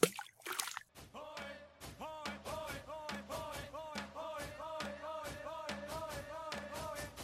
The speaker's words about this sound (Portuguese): Vou jogar aqui o, sabonete na água, ó, o barulho.